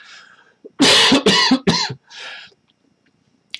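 A fit of loud, harsh coughing: three strong coughs in quick succession, followed by a softer, raspy cough and then quiet.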